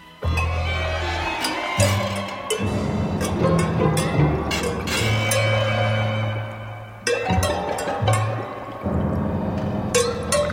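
An experimental musical piece from 1952, recorded in 1959, of chimes in boiling water: metallic clinks and glassy strikes ring over steady liquid bubbling and churning, with low sustained drones swelling and dropping out. No talking.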